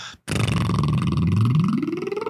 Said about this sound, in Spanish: Entonces, pues, un ejercicio muy sencillo es hacer, eh, ¿cómo se llaman? Trompetillas y jugar con el sonido de nuestra voz